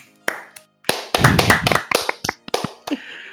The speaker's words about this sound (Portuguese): Uma salva de palmas